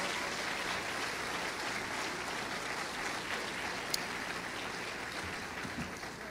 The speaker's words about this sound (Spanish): Bienvenidos, denle un aplauso a los, a los adolescentes, a los chavos.